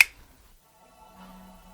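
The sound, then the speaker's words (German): A light switch on a wall is pressed in the dark, giving one sharp, crisp click, followed by a faint, steady electrical hum as neon tubes on the ceiling come on. “Noch waren links und rechts die Türen zu erkennen, aber mit jedem Schritt wurde das Licht aus den offenen Türen schwächer, bis Sean stehen blieb und auf einen Schalter an der Wand drückte.”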